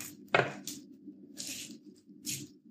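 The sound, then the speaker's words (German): A sharp tap against a cooking pot is followed by several short crinkling, rustling strokes as a thin cover is stretched taut over the rim. There is no talking. “Und jetzt spanne ich die schön über diesen Kochtopf.”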